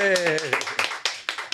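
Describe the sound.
A brief voiced sound gives way to a handful of sharp, scattered claps, a short, sparse burst of applause from what sounds like only a few people.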